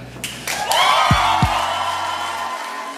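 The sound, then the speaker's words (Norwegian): A crowd of Senterpartiet supporters cheers and applauds loudly at an election-night rally as party leader Trygve Slagsvold Vedum takes the stage, with sharp bursts at the start, a continuous wash of clapping and whooping, and a couple of low thumps in the middle. “Da partileder Trygve Slagsvold Vedum gikk på scenen på valgvaken for noen få uker siden klappa tilhengerne hans for et historisk maktskifte fra Arbeiderpartiet til Senterpartiet i de tre nordligste fylkene.”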